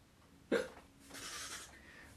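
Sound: voice imitating a hiccup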